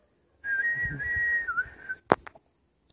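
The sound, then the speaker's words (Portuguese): A person whistles a sustained, slightly wavering birdlike note for about a second and a half, followed by a quick sharp chirp, with no talking. “Os passarinhos vinham caminhando comigo a cantar, assobiando.”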